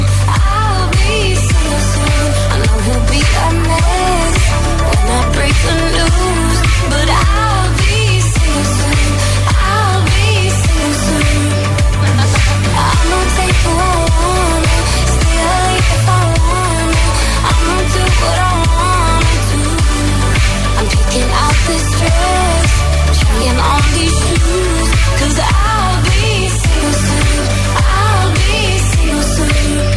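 An upbeat pop song plays steadily and loudly throughout, with a thumping bass line, bright synths and a sung melody carrying over a driving beat.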